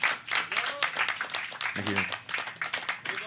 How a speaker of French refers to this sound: non, mais faut, faut applaudir, Let's go. On applaudit. Merci d'être là, merci d'être là.